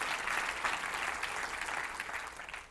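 An audience at the church of Portail applauds steadily, a dense, even patter of many hands clapping at moderate volume without pause, with no voices standing out above it.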